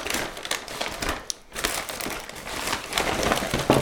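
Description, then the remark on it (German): Loud crinkling of a HelloFresh meal kit bag, number 13, being opened and handled, with continuous rustles and crackles over a few seconds and a brief pause partway through; no one speaks. “Wir haben dann ja noch die Nummer 13, die mache ich jetzt als Beispiel nochmal auf.”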